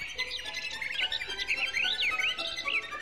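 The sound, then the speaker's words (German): High violin notes imitate birdsong, with quick twittering chirps, rapid trills and swooping glides that rise and fall continuously over a few seconds. The playing is bright, with no voices. “Und es jault, trillert und zwitschert, wenn Paganini Tierstimmen nachahmt”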